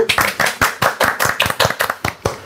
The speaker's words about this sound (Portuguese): Uma salva de palmas